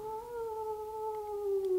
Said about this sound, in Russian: И было чего самом недалеком от меня расстоянии громко и протяжно провыл голодный волк.